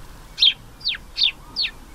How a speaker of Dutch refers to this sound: Dit is... Dat is een mus. Dit is de gewone mus. Die kunnen wij allemaal in onze eigen tuin gaan bekijken.